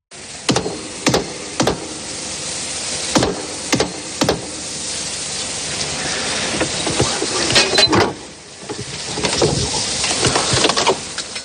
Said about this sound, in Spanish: Pues es un sonido simple, pero con mucha importancia. Se trata del momento de la apertura de la Puerta del Perdón en el monasterio de Santo Toribio de Liébana.